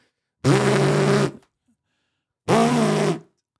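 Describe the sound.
A voice imitates a loud buzzing cell phone vibration, as loud as in TV series and films, giving two strong, rough, sustained buzzes of about a second each with a short pause between them.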